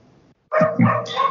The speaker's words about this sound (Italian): Bene, allora voi sentirete probabilmente il cane in sottofondo perché sta abbaiando e io non posso esercitare il controllo su di lui, eh, però vabbè, sentirete anche la mia voce.